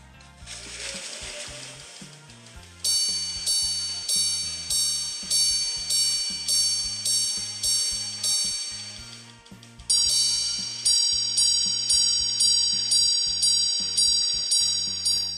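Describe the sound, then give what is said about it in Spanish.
A Greubel Forsey Grande Sonnerie minute repeater watch chimes: a short mechanical whir, then a steady run of bright, ringing metallic strikes, followed by a second series of quicker, higher tones. Clear, with no talking. “Les voy a poner un, un, sonidito, este, y no es el de la canción, de cómo es el repetidor de minutos.”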